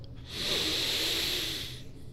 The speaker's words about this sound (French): Vous le faites peut-être déjà, mais on y va. À go, on prend une grande respiration.